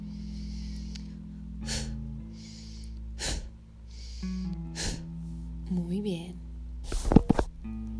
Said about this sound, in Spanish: Y ahora inhala profundo. Y ahora haz respiración corta.